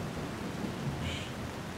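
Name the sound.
heavy rain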